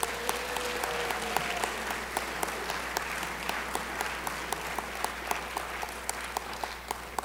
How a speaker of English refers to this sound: I think we should give them a round of applause for live audio description.